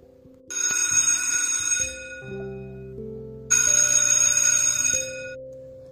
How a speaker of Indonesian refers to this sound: Bel tanda masuk berbunyi.